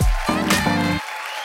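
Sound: audience applause and cheering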